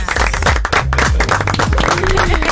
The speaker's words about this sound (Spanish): No, Aplausos.